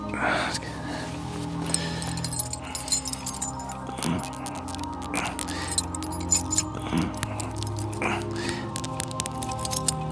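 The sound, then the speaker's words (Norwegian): Metallic jingling and clinking of keys, handled in several bursts over steady background noise, with faint breathy sounds between. “Nøkler.”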